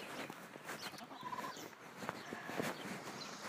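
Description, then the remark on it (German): A puffed-up hen clucks in short, irregular bursts, with scattered farmyard animal noises and rustling around it and no talking. “Das sie sich gerade aufgeplustert, die Henne”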